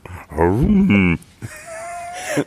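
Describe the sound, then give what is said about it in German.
Someone imitates a moose's bellow: a loud, drawn-out, wavering vocal groan, then after a brief pause a thinner, higher, sustained moan that fades out. “Also Elche machen auch so ein, so ein, so ein röhrendes Geräusch.”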